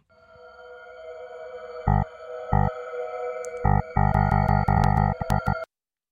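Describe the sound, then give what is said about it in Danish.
An electronic wrong-answer quiz sound effect: a sustained buzzy synth drone punctuated by loud pulsing bursts that come quicker toward the end before cutting off abruptly. No one speaks. “Øh, og hvis du svarer forkert, så får du den her lyd.”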